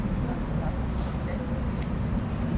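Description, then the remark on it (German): A steady, low rumble of traffic with wheels rolling along the road on a sunny, warm day, continuous, with a faint hiss of tyres layered over the deep drone. “Fahrgeräusche.”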